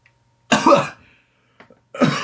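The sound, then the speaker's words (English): A person coughs: one harsh, raspy cough, a brief pause with a small throat sound, then another rough cough starting at the end. No one speaks. “sorry, once again, uh, horrible cough is the perfect time for a podcast.”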